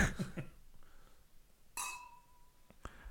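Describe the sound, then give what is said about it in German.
Glasses of rosé wine, a cuvée, meet in a toast with one bright clink that rings clearly for about a second, followed shortly by a short second knock, with quiet shuffling before it. “Also los ist das Stichwort, los uns mal anstoßen.”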